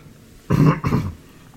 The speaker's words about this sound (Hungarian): Ez nem az a torokköszörülés volt, ez a hagyományos értékű torokköszörülés volt.